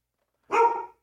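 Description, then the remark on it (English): A single sharp bark from a female dog rings out from near silence, loud, lasting under half a second before cutting off. “So, and we do have a kid, by the way. You can hear her right now.”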